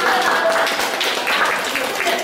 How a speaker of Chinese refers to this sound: 好，我们给这个小朋友鼓掌吧。